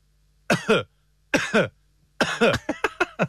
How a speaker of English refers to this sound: So to click the microphone, and then we have to cough three times. Let's see if we can do this now. beautiful cough. Absolutely beautiful.